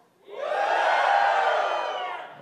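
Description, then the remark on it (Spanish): An audience of married people in Monterrey lets out a loud, sustained collective shout of joy, rising quickly and holding for about two seconds before tapering slightly, with many voices blending together. “A ver, los casados, un grito de júbilo.”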